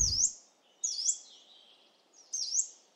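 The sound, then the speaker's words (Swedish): Three thin, high, upslurred contact calls of a yellow-browed warbler, spaced about a second apart, clear with no talking. “Så oftast så går det till så här när man hittar en taigasångare, att man hör det här locklätet.”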